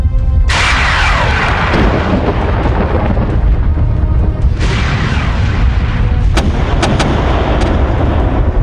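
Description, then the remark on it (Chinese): A barrage of loud air-cannon blasts fired at a door to smash it: two heavy booming bursts with long roaring rumble, followed by a rapid string of sharp cracks. No voices, just continuous thunderous noise throughout. “一阵狂轰滥炸之后，那扇门竟然纹丝不动。”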